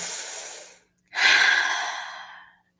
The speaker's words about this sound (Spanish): O sea, el primer paso para mí sería, me siento o me detengo, esté donde esté, y respiro. Respiro conmigo.